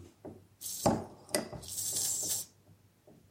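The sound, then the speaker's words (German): A beer bottle cap is pried off: a couple of sharp metallic clicks and scrapes, then a bright, steady hiss of escaping gas lasting about a second. No one speaks. “Es zischt sogar noch beim Öffnen.”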